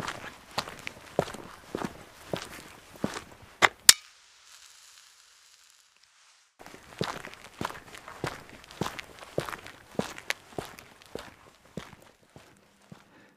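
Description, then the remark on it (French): Steady footsteps of a man walking at an even pace before dawn near a power plant; he halts for a couple of seconds to light a cigarette, with only a faint hiss, then resumes walking in the same rhythm. “s'arrêta, alluma sa cigarette et reprit sa marche.”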